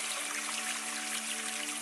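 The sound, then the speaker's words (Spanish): Steady, gentle trickling water flows continuously at a soft, even level throughout a guided meditation, with no voices and only faint low tones humming underneath. “Y así como escuchaste durante toda esta meditación el agua, te voy a pedir”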